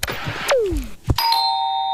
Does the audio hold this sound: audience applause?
no